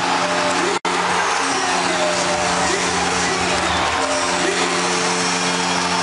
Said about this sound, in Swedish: Och stället går bananas! Fullständigt! Gälleräven Center jublar!